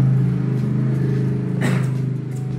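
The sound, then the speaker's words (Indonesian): A motorcycle engine drones steadily in Rancaekek, on the outskirts of Bandung, its low hum holding strong before easing slightly as it moves along, with a brief burst of hiss partway through. “kela motor kela motor”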